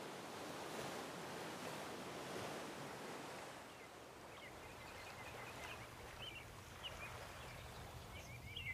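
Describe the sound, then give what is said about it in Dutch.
Sea waves wash in with a steady, rushing roar that is strongest at first and then eases into a softer surge, while faint bird chirps sound now and then in the background. “Ik ren achter hem aan, maar het water is te zwaar en ik struikel voorover, recht in de zee.”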